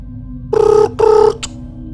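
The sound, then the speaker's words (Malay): Two short electronic telephone ring tones sound in quick succession, clear, followed by a brief click, like a call ringing out over a handset as someone phones hospital security. “jadi saya pun alamak saya telefon security”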